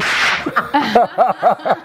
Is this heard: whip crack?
yes